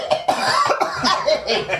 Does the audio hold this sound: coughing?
yes